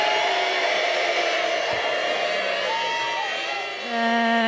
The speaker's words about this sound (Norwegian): buing der, altså